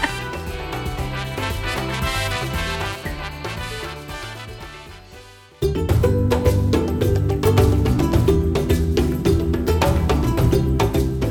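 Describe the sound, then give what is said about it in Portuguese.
African atabaque hand drums play loudly in a dense, driving rhythm, with bell-like metallic strikes. A more melodic musical passage comes first, then cuts abruptly to heavier drumming about halfway through. “Momento jabá, o som dos atabaques africanos, né?”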